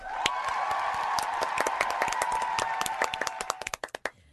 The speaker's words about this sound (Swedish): Du får en till applåd innan du går ut.